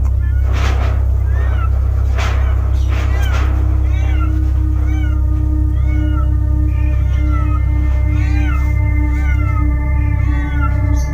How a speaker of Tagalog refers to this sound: Narinig mo ba yung mga pusa sa iyong paligid? Sila yan at nagbabalat kayo sila.